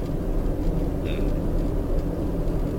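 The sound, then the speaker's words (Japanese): Steady, loud low-frequency rumble of an old car's interior while driving, a constant droning road and engine noise filling the whole clip with a faint brief squeak partway through. “えっと、これを聞いてくださる方はなんじゃこのやかましい配信はってなるかもしれないんですけどあの、まあ、外れ会というところでねあのご容赦いただければなと思います、はい、なんかもっとさその静かに走る車だったらねありがたいよね”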